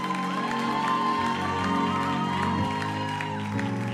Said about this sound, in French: Est-ce qu'on peut donner une bonne main d'acclamation à l'éternel pour ça?